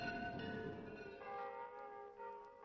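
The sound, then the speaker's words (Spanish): Church bells in Escobedo clang in a fast, overlapping peal, rung in haste as the 'arrebato' alarm toll to warn residents of a threat. Their ringing tones layer densely without pause, loud, like an urgent alarm. “Contañidos a toda prisa, las campanas avisan de alguna amenaza a los pobladores.”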